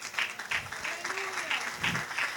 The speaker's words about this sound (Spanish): Dele un aplauso al Rey.